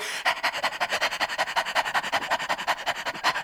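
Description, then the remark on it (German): Rapid, rhythmic panting breaths from a person imitating a dog with tongue out and hands on the ribs, about seven puffs per second, steady, with no talking over it. “Dann die Zunge raus, wie ein Hund hecheln.”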